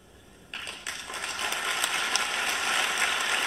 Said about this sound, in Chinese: 大家听到掌声了吧？